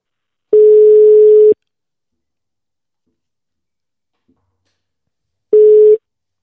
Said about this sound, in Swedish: Så vi ringer får vi se om vi får något svar.